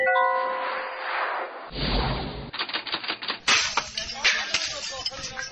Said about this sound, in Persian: این صدایی هم که شنیده میشه صدای مراسم انهدام بطری های نوشیدنی غیر مجازه که در کردستان پیدا شده